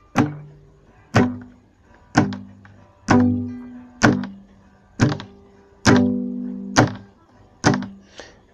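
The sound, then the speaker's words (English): Palm-muted guitar strums played with a pick in a slow, steady rhythm, eight dull, chunky hits about a second apart, each choked off quickly by the palm with only a brief ring; clear, no talking. “so the peak should not sound but it should sound like i don't know how to put it it should sound like it's muted like it's it's you are preventing it from sounding so it should sound something like this”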